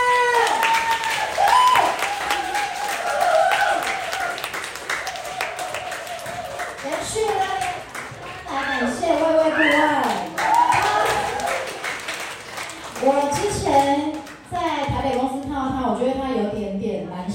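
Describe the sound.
Steady audience applause fills the whole stretch, a dense crackle of many hands clapping at a loud, even level, with a voice carrying over the top of it, as the audience welcomes an invited lecturer.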